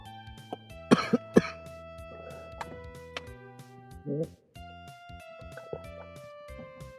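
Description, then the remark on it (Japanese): A quick pair of harsh coughs, then a third rougher cough a few seconds later, fairly loud over a steady background of sustained electronic tones. “大丈夫それは咳が出るけど、あなた大丈夫ですか”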